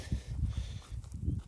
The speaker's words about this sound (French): je suis désolé pour le vent